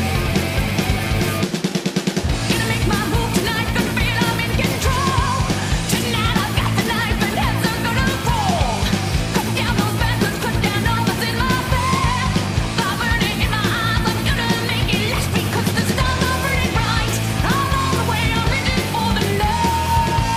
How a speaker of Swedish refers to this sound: låter eh, väldans eh, speed metal 80s.